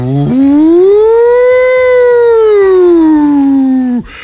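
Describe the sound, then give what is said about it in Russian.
A civil defense loudspeaker siren, being tested in the morning, wails loud and steady, its tone sweeping up, holding, then slowly sinking over about four seconds before cutting off abruptly, with no talking over it. “вот когда утром, да, вот вот они, они, когда их проверяют утром, да, это звучит примерно так, да.”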